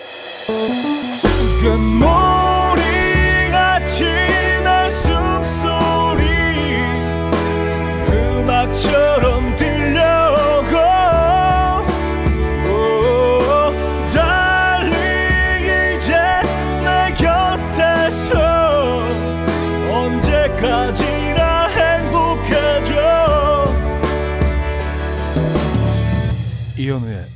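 A full-band pop song plays steadily and loudly throughout, with a sung vocal melody over a driving beat, bass and layered instruments.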